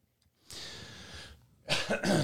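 A person lets out a raspy, throaty exhale followed by two sharp, loud coughs in quick succession, with no talking.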